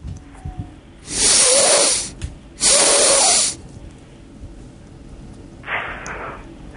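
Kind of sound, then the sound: human body sound, sniffing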